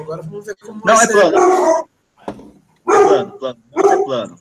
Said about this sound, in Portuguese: Tem um cachorro latindo é, em é Monza. Falou em Monza, latiu o cachorro.